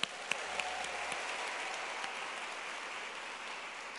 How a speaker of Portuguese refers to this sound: Uma salva de palmas para vocês que vieram na chuva.